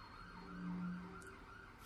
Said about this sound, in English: Police sirens.